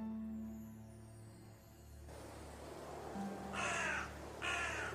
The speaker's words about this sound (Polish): I nagle słyszycie, jak twój kruk zaczyna krakać i Frisk tylko wychodząc jeszcze zwrócił uwagę na twoje kruczysko, które zafurkotało skrzydłami i przysiadło może na jakiejś komodzie albo na jakimś regale.